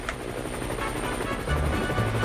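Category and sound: vehicle, helicopter flying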